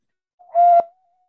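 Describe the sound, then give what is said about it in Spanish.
A clay conch shell trumpet gives one short, loud blast: a steady, breathy mid-pitched tone that swells quickly, cuts off abruptly after about half a second, then leaves a faint thin tail. “Es un la caracol, concha. Un caracol de, concha. Yo tengo aquí uno de barro.”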